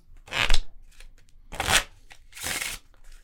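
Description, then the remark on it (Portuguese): Three bursts of crisp, papery riffling as a deck of playing cards is handled during a card trick, a chosen card being lost in the middle of the deck, each lasting about half a second with short pauses between. “Carta assim, perdida alguns pelo ah. meio do baralho.”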